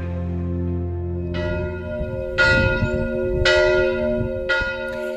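A single church bell rings out loudly, striking four times at a steady, slow pace, each strike swelling into a long metallic hum that overlaps the next.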